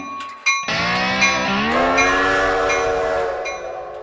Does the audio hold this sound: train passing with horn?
yes